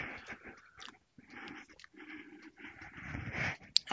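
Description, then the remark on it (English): Sipping hot coffee: a few wet, noisy slurps and swallows with brief pauses between them, and a small clink near the end. Nobody speaks. “And uh, so let me get a, a, um, a sip of coffee here so I can persist in my effort.”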